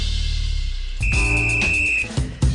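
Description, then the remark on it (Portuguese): A single shrill whistle blast, loud and steady, held for about a second over a busy background of noise before cutting off. “Apito porque a gente ia falar de um jogador do Grêmio que já estava contando com a queda do time para a Série B e agora que não caiu, vai ter que deixar o próprio casamento para depois.”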